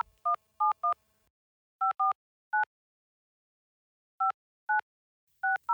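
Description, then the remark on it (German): About ten touch-tone telephone dialing beeps as a phone number is dialed to reach someone, short and evenly pitched, tapped out in irregular clusters with pauses between them. Clear, with no voices. “Und ähm, der Mann, der dann auch für dich so ein bisschen eingetreten ist und dafür gesorgt hat, dass es dann klappte, den haben wir gleich am Telefon, wenn wir jetzt die richtige Nummer haben.”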